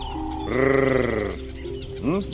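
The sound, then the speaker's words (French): A loud human trilling call, made by a honey hunter of the Djao community in Mozambique to attract honeyguide birds, holds for nearly a second with a rapid wavering pulse, followed after a pause by a short, low grunt. “Même chose au Mozambique, sauf qu'ici les chasseurs de miel de la communauté Djao attirent ces oiseaux avec un son de trill suivi d'un grognement sourd.”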